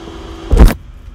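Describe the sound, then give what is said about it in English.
A brief, loud motorized whir like a vacuum cleaner bursts out for a fraction of a second, then cuts off, leaving a low steady hum with no talking. “Sounded like a vacuum cleaner.”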